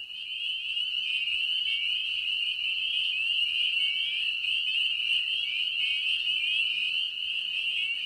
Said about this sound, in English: Just down the road from where I live is this little pond. Every night for the last couple of weeks, the peepers, the frogs, have been out in force, and this is what they sound like.